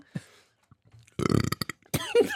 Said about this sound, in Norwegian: jeg ble faktisk varm i fjeset av den rapingen der.